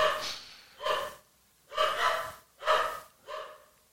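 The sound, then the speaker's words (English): Dogs making noise: five breathy, huffing bursts in quick, uneven succession, each a rough snort-like exhale, moderately loud, with no talking. “You know, I don't know distracted by these fucking dogs.”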